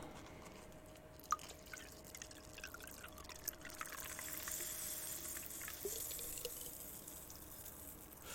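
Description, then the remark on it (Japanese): Strongly carbonated, zero-sugar lemon sparkling water pours steadily into a glass of Ginspire, a continuous trickling fizz with a few sharp drips and clinks, no voices. “これ今ね、ジンスパイア、舐めた名前ですけどね、ジンスパイアに、この日、レモン炭酸水日を入れてみました。”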